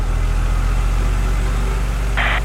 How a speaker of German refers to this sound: Er geht nicht ran, murmelt Didi, als plötzlich eine Drohne über seinem Kopf schwebt.